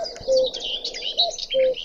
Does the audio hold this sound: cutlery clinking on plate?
no